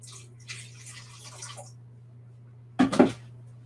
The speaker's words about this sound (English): So I'm actually just going to add a little bit of water to this.